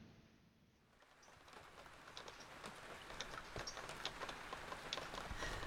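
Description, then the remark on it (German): Steady rain falls under a dark grey sky over muddy land in damp cold, a dense hiss of drops with scattered sharper patters, growing a little heavier after a quiet opening second. No voices. “Regen, Regen. Der Himmel dunkelgrau. Das Land eine Schlammwüste.”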